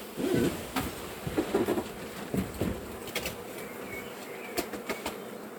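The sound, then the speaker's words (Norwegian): A soft, steady hum of calm honeybees fills the background as a beehive is opened, with scattered clicks and brief rustling knocks as something is handled. “Og da ser du hvor snille og stille disse biene her er.”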